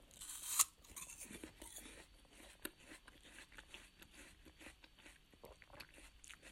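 A crisp, loud crunch as someone bites into a Shinano Dolce apple, followed by several seconds of wet chewing with small crackling bursts, no talking.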